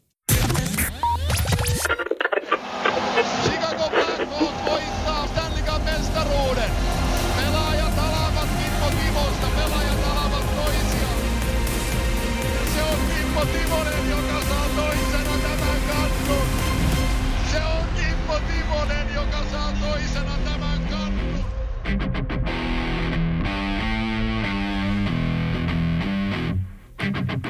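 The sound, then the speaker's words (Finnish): A loud, distorted electric guitar riff plays in a dense, driving stretch of music that fills nearly half a minute before thinning out and breaking off at the end. “Näin päästään kitarariffistä Filadelfiasan auringonpaisteeseen”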